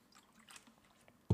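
Quiet sipping of water: faint wet slurps and small mouth clicks, ending in a sudden louder low thump, like a glass being set down or a swallow.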